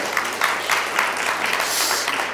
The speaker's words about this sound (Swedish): Visst, visst är det en fin, fin lovsång idag. Bara ge dem en kärlekens applåd.